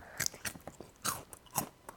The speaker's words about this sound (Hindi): वो तू कर क्या रहा है मैं कुरकुरे खा रहा हूँ